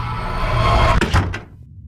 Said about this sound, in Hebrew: פתחתי את הדלת והריח היה חזק יותר. לקחתי את הדוח במהרה וטרקתי את הדלת על פניו.